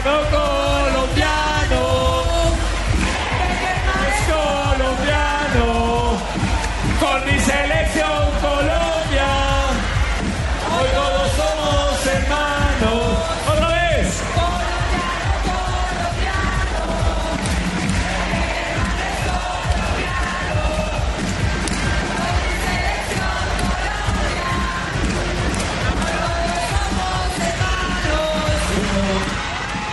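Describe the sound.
More than a thousand people at a welcome rally for the Colombia national team in Parque Simón Bolívar, Colombia, cheer and chant continuously, a loud, dense wall of many voices with rising shouts throughout, never dropping to quiet.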